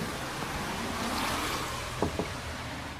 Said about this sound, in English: It's very kind of him because it's actually raining out here and it's horrible.